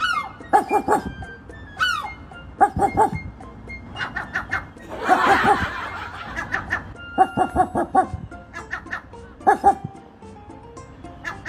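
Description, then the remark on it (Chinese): Rapid, repeated dog-like barks trade back and forth in quick bursts between a man and a seagull on a balcony in Liverpool, England, both imitating a dog; yappy and mid-pitched, with a brief rough, noisy burst midway. “只听阳台上此起彼伏的狗叫声，海鸥说：“啊，我还以为这是个人类呢，原来它是狗啊！”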